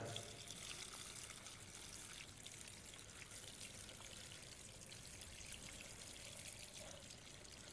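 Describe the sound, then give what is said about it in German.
Water pours steadily into a container, a continuous splashing rush that keeps an even level for about eight seconds without pause. “Und was wir tun, ist, wir geben ein bisschen Wasser hier rein.”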